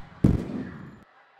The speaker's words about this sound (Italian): Qualche altra testolina si sarà alzata cercando i fuochi d'artificio nel cielo. Quelle degli insegnanti, invece, saranno state chine sulle loro tazzone di caffè, senza interrogarsi troppo su quella scia di petardi.